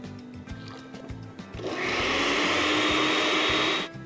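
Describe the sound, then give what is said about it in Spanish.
After some soft clattering and handling noises, a blender whirs loudly and steadily for about two seconds, dissolving corn masa dough in the same jar used to grind huitlacoche, then cuts off abruptly. “En el mismo vaso de la licuadora donde molí el huitlacoche voy a desleír la masa.”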